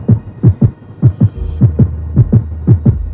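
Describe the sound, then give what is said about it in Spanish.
A rapid fetal heartbeat from an ultrasound scan pulses in quick, regular double thumps, fairly loud, with a low steady whooshing hum rising underneath partway through. No one speaks. “Nos haces partícipes de una cantidad de latidos a mil por segundo cuando no necesitamos escucharlo.”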